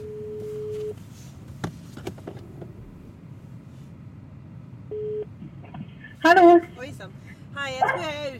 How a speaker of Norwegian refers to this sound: Jeg har en veldig bråkete hund her.